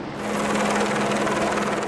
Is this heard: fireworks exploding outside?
no